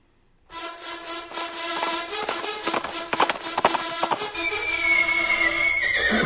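A horse neighs loudly for several seconds, its whinny rough and wavering with rasping bursts, then rising into a shrill, drawn-out squeal at the end.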